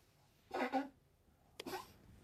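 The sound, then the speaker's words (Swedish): A small old female dog with a bad heart valve coughs twice, short rough hacking bursts about a second apart, fairly quiet with no talking. “Nej, det är, det är lilla hunden med den dåliga hjärtklaffen.”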